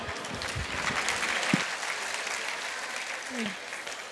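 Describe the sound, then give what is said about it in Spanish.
A group of people who have just made hearts in a craft activity clap steadily for several seconds, a dense, sustained patter of applause with a few brief voices and shouts rising faintly through it. “Gracias, démosle un aplauso.”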